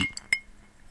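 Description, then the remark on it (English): An ice cube drops into a glass, giving a few quick, light clinks with a bright, high ringing tone that fades out fast. No one speaks. “But here's my cube dropping.”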